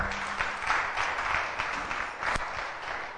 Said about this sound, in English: All right, please give Jesus a clap offering.